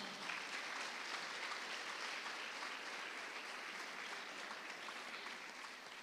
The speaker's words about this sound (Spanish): Dele palmas fuerte al Señor, hermano.